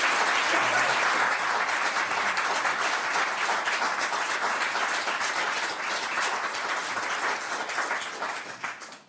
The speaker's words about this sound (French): Je suis pas habitué quand je parle qu'on m'applaudit.